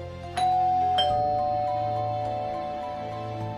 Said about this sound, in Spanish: Tocamos el timbre a pesar de que la puerta estaba abierta y entramos pensando que nos asustarían y luego nos darían los caramelos.